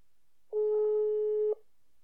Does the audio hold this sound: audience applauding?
no